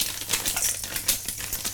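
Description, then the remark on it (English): Frozen garlic poured from a packet sizzles in a wok: a steady bright hiss peppered with rapid, irregular crackles and pops, moderately loud and continuous, with no one talking. “Um, you might hear a nice sizzle on the mic.”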